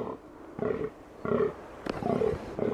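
Deep, guttural groans of a rutting fallow deer buck in the evening, repeated in a steady series of short belching calls, loud against a quiet outdoor background.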